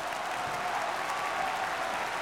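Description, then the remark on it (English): Steady applause from a group, a dense wash of many hands clapping at an even level throughout, moderately loud, with no voices standing out. “Enough of the applause. Enough. Cut the applause.”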